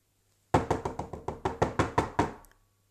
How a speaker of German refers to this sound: Während ihr Kopf zwischen meinen Beinen verschwindet und ich das Gefühl habe, dass das ganze Schlafzimmer beginnt sich zu drehen, klopft es auf einmal.